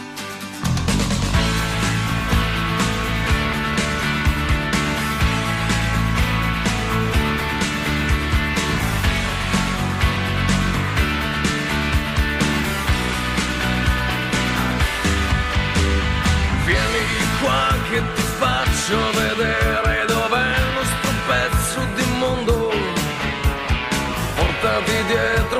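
An Italian rock song plays loudly and steadily throughout, a dense full-band sound with sustained, gritty guitar tones and a driving beat. No one talks over it.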